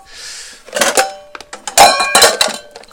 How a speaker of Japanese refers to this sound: 今ねあの洗い上がった食器をね食洗機から出して片付けている